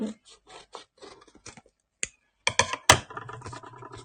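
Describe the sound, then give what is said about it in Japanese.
Scissors snip through stiff paper card in a series of short, crisp cuts, followed by louder rustling and crinkling as the card is handled, with no one talking. “じゃあ、ハサミ入れていきます。”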